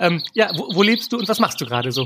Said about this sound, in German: Ja, also ich lebe in Köln. Ich sitze gerade auf meinem Balkon und die Vögelchen, die du hörst, die kommen von den riesengroßen Bäumen, die hier direkt vor meinem Balkon sind. Die sind ultra lang, also die gehen bis in den vierten Stock.